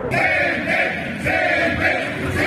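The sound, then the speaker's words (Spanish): Tens of thousands of workers in Mexico chant in unison at a May Day protest on Monday, May 1st, marching in the main avenues and streets, many loud voices rising and falling in a steady rhythmic cadence with brief swells. “Así se escucharon decenas y miles de trabajadores que a lo largo y ancho de la República Mexicana salieron este lunes, primero de mayo, a tomar las principales avenidas y calles de este país.”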